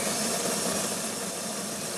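household object, coffee machine running

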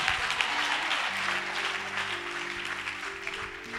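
crowd, audience applause and cheering

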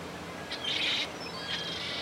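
bird, gulls calling

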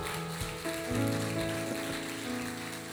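crowd, audience applauding

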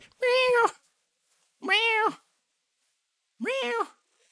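animal, cat meowing and purring

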